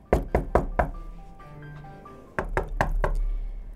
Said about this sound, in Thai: ทันใดนั้นมีเสียงเคาะประตูดังมาก